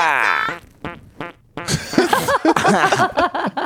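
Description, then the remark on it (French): A loud, buzzy fart rips out up front, followed by a few short sputtering bursts, then a burst of giggling laughter takes over the rest. “A péter comme un schlag.”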